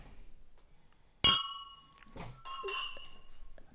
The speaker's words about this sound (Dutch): Hey jongens, laten we dan maar gaan eh, klinken.